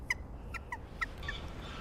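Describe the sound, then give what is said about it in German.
Greylag geese give a quick series of short, nasal honks, about half a dozen calls in under two seconds, over a low outdoor rumble, with no one speaking. “Jetzt sind Graugänse gekommen, aber der Höckerschwanenmann zeigt ihnen jetzt schon, wo es lang geht.”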